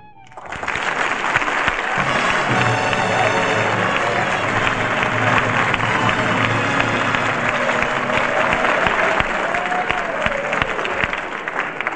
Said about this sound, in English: But why should I get all that applause? Well, the Ohio football team is in the audience.